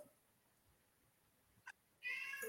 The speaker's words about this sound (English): The cat. It was did the cat just whine? yeah. Oh yeah, it came through loud and clear.